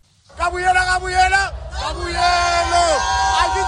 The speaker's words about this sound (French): C'est une foule bleue et jaune déchaînée qui a rempli le stade Loftus de Pretoria et ses quelques 50 000 places.